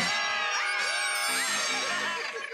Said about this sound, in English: Good screaming, everybody.